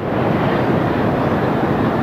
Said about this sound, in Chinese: 从天安门广场上空呼啸而过的是十五架歼二零飞机编队，这是歼二零最大规模的一次亮相。